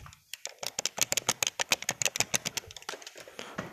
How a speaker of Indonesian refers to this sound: terus suara joy joystick apa sih namanya ya itulah yang buat main komputer kayak gitu suaranya